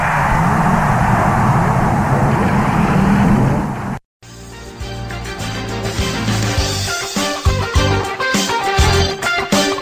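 Loud, dense roar of race car engines starting and rumbling, broken by a sudden short cut, then engines revving with rising and falling pitch. Nobody speaks.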